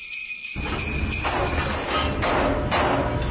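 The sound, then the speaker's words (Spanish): Busy workshop clatter starts after a brief silence, with repeated hammer blows ringing over a dense, steady din of banging and a small machine as gifts are being made, fairly loud. “Quiero escuchar esos martillos, quiero escuchar esa maquinita...”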